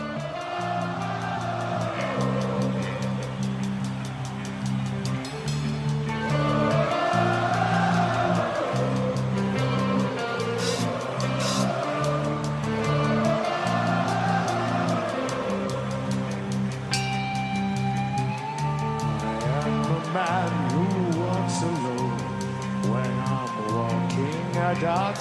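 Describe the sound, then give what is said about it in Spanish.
A loud live rock band, a heavy metal band at a concert in Argentina, plays a heavy, sustained intro while a large crowd sings along to the repeating melody, the full sound steady and dense for the whole stretch. “Y te dejo con este temazo de …, de la última vez que vinieron a Argentina para ir calentando motores.”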